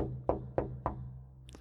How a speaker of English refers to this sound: We would walk up to his bedroom. The door was open. And we'd have to knock on the door